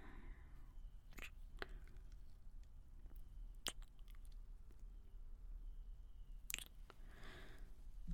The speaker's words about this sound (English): you kiss well for a dork.